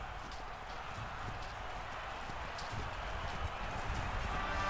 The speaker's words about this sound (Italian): un re giunge a cavallo.